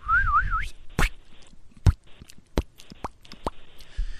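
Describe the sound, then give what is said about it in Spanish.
A voice imitates shower water dripping onto the floor: a wavering whistled tone, then a series of sharp mouth plops and clicks spaced irregularly, like drops falling one by one onto a surface. “Yo quisiera hacer una gota de esas que va así.”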